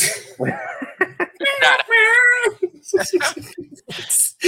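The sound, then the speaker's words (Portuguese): Someone vocalizes a mock electric guitar riff, with whiny, wavering tones that bend up and down in pitch, delivered in short bursts. The effect comes out rather cat-like. “Toca um air guitar aí”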